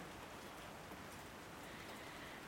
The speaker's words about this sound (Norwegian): Tja, det var jo det med det regnet, da. Blir det mer og mer regn, og blir det kraftigere regn?